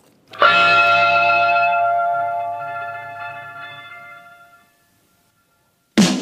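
An electric guitar with a slightly overdriven tone strikes one loud chord at the opening of a blues-rock song; it rings out and fades slowly over several seconds, then a brief silence before the next note starts.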